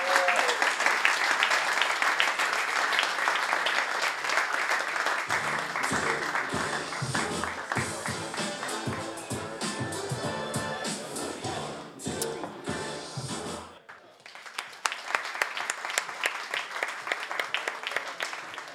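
An audience claps steadily for several seconds for a guest who passed a clock challenge, a dense wash of hand claps that briefly dips near the end before picking up again; no one speaks over it.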